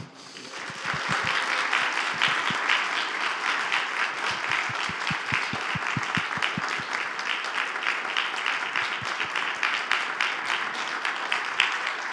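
An audience breaks into sustained applause for God, many hands clapping densely and steadily at a fairly loud level for about eleven seconds, with no talking over it.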